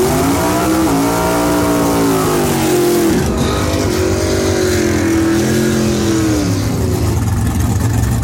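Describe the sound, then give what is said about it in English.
Loud, roaring drag race car engines accelerating hard for about eight seconds at the NHRA Spring Nationals in Baytown, Texas, on a Saturday, their pitch rising and dipping as they rev, continuous with no voices. “All they're going to hear is ow, like it's just the sound of the race, but that's okay.”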